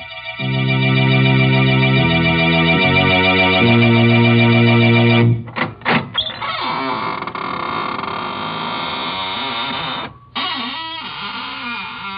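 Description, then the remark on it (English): Opening of the Inner Sanctum Mysteries radio show: a loud, distorted organ chord holds for several seconds, then the show's squeaking door creaks open in a long, wavering creak that slides up and down in pitch, with a brief break midway. “This is Raymond, your host at the Squeaking Door.”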